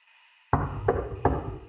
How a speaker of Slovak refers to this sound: Ozvalo sa silné, rytmické zabuchnutie. Trikrát po sebe. Ako výstrely z dela. Niekto kopal na dvere.